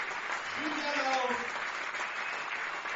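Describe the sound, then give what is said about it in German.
A large stadium crowd at a Marburg Mercenaries American football game applauds steadily as player Sam Samwise is driven off the field, a dense, continuous wash of clapping with a brief raised voice or call rising above it near the start. “Deshalb klatscht das Publikum.”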